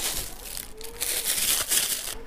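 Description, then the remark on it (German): Rustling and crinkling of bags and fabric, a steady bright shuffle with a few sharper crunches, as someone packs a suitcase or bag on a Friday with a rain poncho, a toothbrush, something to read and a drink in a PET bottle; no one speaks. “So, ich packe jetzt meinen Koffer oder meine Tasche und ich nehme mit”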